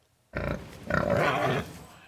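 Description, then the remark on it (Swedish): A voice from the Vårdö school team in a quiz imitates a pig with two loud, rough grunting snorts in quick succession, the second one longer and more drawn out, with no other sounds around it. “En, en gris är det där.”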